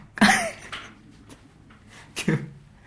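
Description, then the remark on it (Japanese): Two loud, sharp bangs of a door, one near the start and another about two seconds later, with quieter muffled sounds and a brief vocal noise between them. “今、扉のガーンと音が。ガンと音がしましたよ。”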